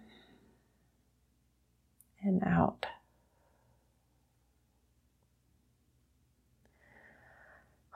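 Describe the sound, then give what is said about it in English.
An audible deep breath drawn in sharply, then after a pause a softer, airy breath let out, with quiet stillness around both. “And as we get started, I want you to take a deep breath in and out.”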